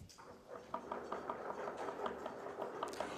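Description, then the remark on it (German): A crowd of audience members in a hall knocks on hard surfaces, a dense, irregular patter of many overlapping raps, steady and moderately loud without any talking. “Wer ist denn gerade in einem Thema in seinem Leben unterwegs, wo er sagt, Herr, ich verstehe dich nicht richtig, ich höre dich nicht richtig, ich weiß nicht, was ich tun soll, was dein Wille ist.”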